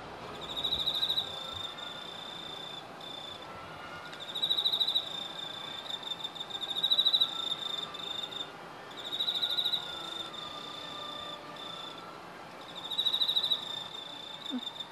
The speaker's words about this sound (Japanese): それで皆さんに一度あその、はい、コオロギさんの鳴き方のいろいろ三つ、はい、聞いていただこうと思います、はい、まずは一人泣きのコオロギさん、はい、ちょっと聞いてくださいはいかけてみますはい